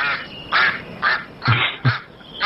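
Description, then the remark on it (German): A duck quacks four times in quick succession, each call a short, raspy, nasal burst with brief pauses between, heard clearly with no voices. “Ja, ist, ja, ist ja keine Ente, ist ja ein Hase.”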